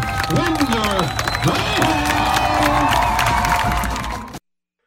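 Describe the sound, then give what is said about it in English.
A large football crowd roars and cheers loudly and steadily for about four seconds after a touchdown by Dalton Witherspoon on a toss sweep, with individual shouts and rising whoops poking above the dense wash of noise before it cuts off abruptly. “noise for your very own”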